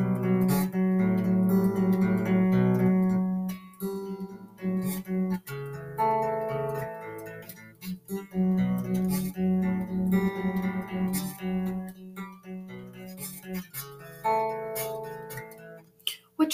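A gentle, melodic passage opens a heavy metal song, with sustained ringing guitar-like notes and a steady, moderate level and no pounding drums. Nobody speaks over it.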